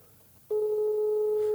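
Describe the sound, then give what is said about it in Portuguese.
A telephone ringback tone: a steady, clear electronic tone that starts after a brief quiet pause and holds unbroken at constant loudness until the end, with no one picking up. “Não vai atender, porque isto não são horas para ninguém atender.”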